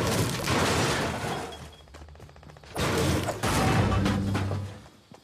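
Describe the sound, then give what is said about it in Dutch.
Dense, chaotic bursts of smashing and crashing as many video game players in a green environment hit things at once, loud and continuous with a brief lull in the middle, no voices. “Als je nu met een spelletje begint, dan word je in een, een, een groene omgeving gedropt met een hele hoop eh, andere spelers om je heen, die allemaal maar tegen dingen aan het slaan zijn.”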